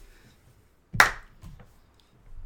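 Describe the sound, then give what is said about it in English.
A single sharp hand clap, made to mark a spot for editing in a recording, cuts through a quiet moment, bright and loud with a quick decay, followed by faint rustling and low murmurs. “You're gonna have to edit that. Sorry. Um, um yeah. Clap.”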